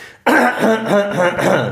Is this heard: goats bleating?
no